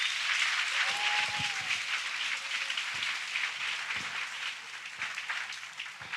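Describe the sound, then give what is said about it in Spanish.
A church audience applauds the Lord during a Spanish-language sermon, a dense wash of many hands clapping steadily at an even loudness for several seconds, with a brief faint tone sounding early on and no clear speech. “Anímese dándole un aplauso al Señor para que predique en su barca.”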